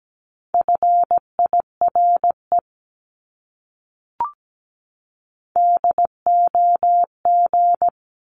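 Morse code sent at about 17 words per minute: a steady mid-pitched tone keyed into short and long beeps, forming two words with a pause and a faint click between them.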